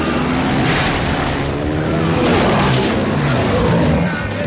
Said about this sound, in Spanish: Las motos corren veloces, pero no consiguen alcanzarles.